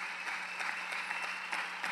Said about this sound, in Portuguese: Dê mais um aplauso a Ele, por gentileza. Glória a Deus.